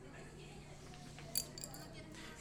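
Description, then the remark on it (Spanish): A pencil drops onto the floor near a person's shoes with a quick, sharp clack, followed by a couple of lighter ticks as it bounces and settles, heard faintly against a low, steady room hum. “Creo que cayó cerca de mi... cerca de mis zapatos.”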